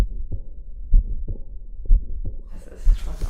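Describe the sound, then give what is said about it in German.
A patient's heart sounds with a heart murmur, heard through a stethoscope: low, muffled thumps repeating at a steady pace, about one per second, with a whooshing murmur filling the gaps, growing hissier toward the end. “dass ihr Herzgeräusch archiviert wird.”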